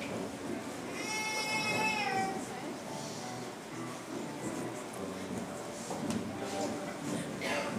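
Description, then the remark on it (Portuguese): A single wavering sheep bleat from a played video of a sheep hearing its shepherd's voice rises clearly over a noisy, murmuring background, followed by a few seconds of muffled sound and faint voices. “Põe o um vídeo para mim da ovelha ouvindo a voz do pastor.”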